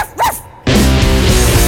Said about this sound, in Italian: Oggi tutti insieme cercheremo di imparare come fanno per parlare fra di loro gli animali. Come fa il cane?